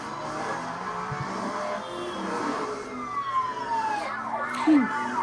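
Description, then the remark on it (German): Cars rush along a highway in an open-world video game trailer with steady engine and road noise, several passing vehicles sweeping by in gliding pitch changes, loud, with faint voices underneath. “so wird dieses Spiel, die fahren jetzt gerade auf dem Highway”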